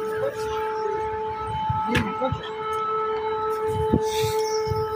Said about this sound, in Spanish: Suena una alarma de antiaérea.